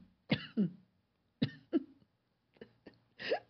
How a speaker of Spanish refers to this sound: Se me fue el café por otro lado, mil disculpas.